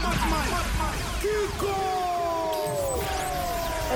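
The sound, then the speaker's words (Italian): A dancehall remix of a 1979 disco song plays loud and steady, dense layered music with gliding, sliding tones weaving over a thick low end throughout. “quindi la dancehall mischiata alla disco music della fine degli anni 70. Andiamoci a sentire allora questo remix”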